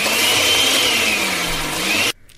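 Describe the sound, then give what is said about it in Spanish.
A loud electric blender, switched on at home, whirs steadily for about two seconds, its motor pitch sagging slightly, then cuts off abruptly, leaving quiet background. “A ver, prende la licuadora.”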